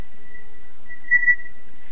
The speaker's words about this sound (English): well, I don't know about that, but what's that whistling sound in, from the background?